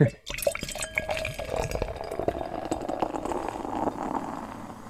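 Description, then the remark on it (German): A beer bottle wrapped in silver foil pops open with a short sharp burst, followed by a steady gurgling, fizzy pour of liquid that runs for several seconds at an even, moderate level. “Ich mache auch mal auf. Das hört sich gut an.”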